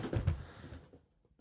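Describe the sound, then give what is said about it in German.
The small cardboard 20th door of an advent calendar is pried open, a brief papery rustle and tear followed by a few faint soft clicks as it settles. “mache die 20. Tür auf des.”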